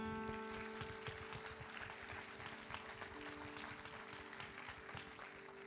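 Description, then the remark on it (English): A church crowd claps steadily for several seconds for a youth quizzer who won an all-tournament team trophy, a dense, even patter of many hands at moderate volume, with a faint steady electrical hum running underneath and no voices. “I'll give him a hand clap.”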